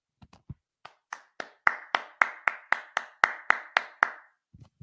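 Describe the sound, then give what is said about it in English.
A single person claps steadily, about a dozen sharp claps at an even pace, building slightly in loudness before stopping, with a few soft taps at the start and end. “So I think that we do need to take a second to applaud Jim for that.”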